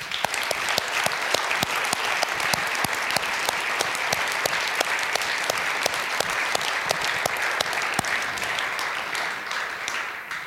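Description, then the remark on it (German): An audience applauds steadily for about ten seconds, a dense crackle of many hands clapping, holding an even loudness before easing slightly at the end. “Und ich finde, jetzt nicht für mich, sondern wirklich für die ganze Mannschaft, die sich da drin geleitet hat, jedes Mal, finde ich, äh, könnten wir mal einen Applaus spendieren.”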